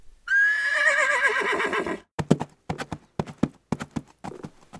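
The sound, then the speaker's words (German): A horse lets out a loud, wavering whinny, followed by a steady run of hooves clip-clopping on a hard surface. “Keine Ahnung, brüllt der Reiter zurück. Fragen Sie das Pferd!”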